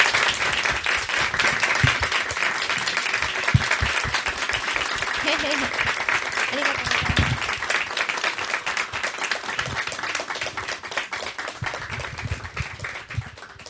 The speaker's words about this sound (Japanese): 拍手でお送りください。